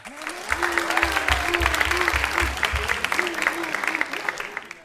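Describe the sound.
An audience at a live show applauds steadily, a dense patter of many hands clapping throughout, with some cheering voices rising faintly under the clapping.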